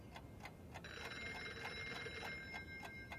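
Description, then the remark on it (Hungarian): A telephone bell rings twice with a bright metallic trill and is not answered, starting shortly in and continuing to the end, over a steady faint ticking. No one speaks. “Közben kétszer is cseng a telefon, de nem veszik fel a kagylót.”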